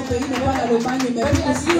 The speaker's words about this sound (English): I wish someone would clap your hands and give God praise for that.